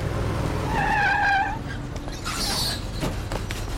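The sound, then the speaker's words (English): A bus brakes to a stop with a loud, wavering brake squeal over a heavy engine rumble, followed by a short hiss of air from the brakes. “You can't kick me off the bus!”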